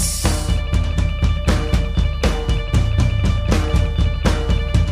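A loud, steady full-band rock track with a driving beat: regular drum hits, sustained guitar chords and a bass line throughout, with no talking over it.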